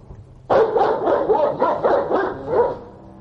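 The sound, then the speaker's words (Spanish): A large dog, a dogo, barks in the distance in a quick, steady burst of about seven deep, gruff woofs over roughly two seconds, fairly loud and with no voices around it. “Rosa se colocó a mis espaldas mientras el dogo ladraba desde la distancia”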